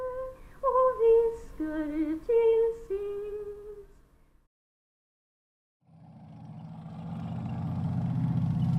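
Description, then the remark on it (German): A short melodic phrase of sustained tones ends, then after a silent pause the rotors of a helicopter bringing Prime Minister Jonas Gahr Støre onto a hill south of Tromsø for the Cold Response manoeuvres start up, a low rhythmic whirring chop growing steadily louder, whipping up freshly fallen snow. “Die peitschenden Rotoren wirbeln frisch gefallenen Schnee auf.”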